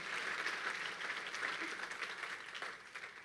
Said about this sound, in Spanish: Otro aplauso al Señor. Estamos en acción de gracias, ¿no?